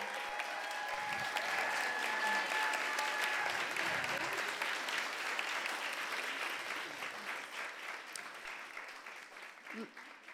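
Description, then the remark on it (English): An audience applauds its panelists steadily, a dense rattle of many hands clapping at once that holds for about ten seconds before thinning slightly toward the end, with a few voices faintly audible underneath. “And so, with that, we want to give a round of applause to our panelists, y'all.”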